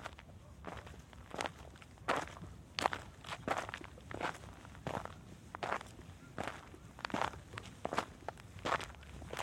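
Steady footsteps walk at an even pace through the alleys of the Medina of Marrakech, Morocco, each step a crisp scuffing tap, repeating roughly twice per second over a low background hum, with no voices.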